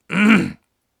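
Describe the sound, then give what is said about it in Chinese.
A single throat clearing, about half a second long, loud and gravelly with a low rumbling voiced tone, done by a voice on its own with no speech around it. “”清了清嗓子。”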